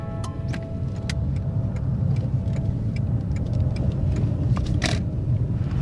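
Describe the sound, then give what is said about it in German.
Steady low engine and road rumble from inside a moving car as it slowly pulls in to park beside a white car at its destination, with scattered sharp ticks like an indicator clicking; no one speaks. “So, ich bin gerade angekommen. Ich habe direkt neben einem weißen Auto, auf dem Tierbestattung steht, geparkt.”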